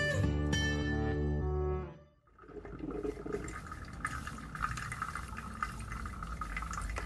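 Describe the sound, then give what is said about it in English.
A sustained musical tone fades out, then a coffee maker bubbles and gurgles steadily, with irregular sputtering pops and hissing over a continuous watery rumble. “The gurgling of a coffee maker.”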